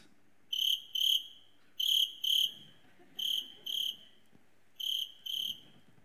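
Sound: crickets chirping sound effect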